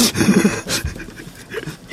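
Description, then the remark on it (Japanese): A person makes a choppy, breathy vocal sound by tapping on their throat to imitate a robot voice, giving short, rapid pulsing bursts of low hum and rough, panting-like breaths. “今なんか、喉叩いてました。昔昔ロボットの真似するとそうなんてね。”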